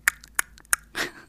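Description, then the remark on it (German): A young boy makes three sharp tongue clicks at an even pace to call the cat Louis, with a few softer clicks between, then a short breathy rush. No one talks. “Mein Sohn lockt Louis meist mit einem Schnalzgeräusch, was eigentlich total niedlich ist.”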